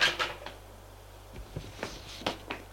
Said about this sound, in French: la porte s'ouvre.